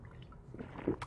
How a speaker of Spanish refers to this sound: bueno, en fin, perdón porque tomé un poquito de agua.